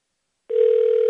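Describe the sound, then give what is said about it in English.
After a moment of silence, a steady electronic telephone tone starts and holds unbroken to the end, loud, as a radio show places a call to Pat Harty of allhawkeyes.com. No one speaks. “All right, it's dialing.”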